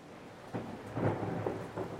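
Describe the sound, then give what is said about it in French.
Steady rain suddenly starts to fall, drops crackling and bursting on a lacquered saddle, a dense patter swelling in a few louder surges, with a low rumble underneath suggesting a stormy downpour. “Soudain, la pluie commence à tomber les gouttes crépitent et éclatent, brillantes, sur la selle laquée.”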